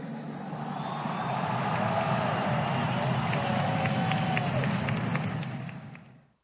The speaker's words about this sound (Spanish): Bueno, seguramente escucharon esa ovación eh, de parte de la gente que se convocó ayer en la Plaza de los Dos Congresos.